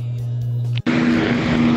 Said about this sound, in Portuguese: E aí está ela, a caminhonete rebaixada. O carro utilitário sem utilidade.